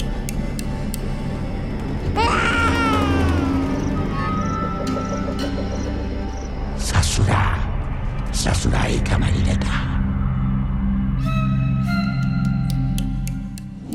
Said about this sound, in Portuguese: e quanto a do bebê, aquele choro estridente.